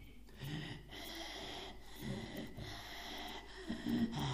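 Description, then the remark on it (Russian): A person imitates raspy, wheezing breathing, several drawn-out rough breaths in a steady rhythm, moderately loud, with no words spoken. “Поэтому, заметьте, есть люди, которые так дышат с хрипом.”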